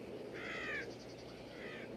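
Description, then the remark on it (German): Two harsh raven and crow caws, one drawn-out call and then a shorter, fainter one, over a steady background hiss, heard quietly in the background of a Western film scene. No one speaks. “Raben und Krähen, klar, die kann es in Wüstenstädten geben.”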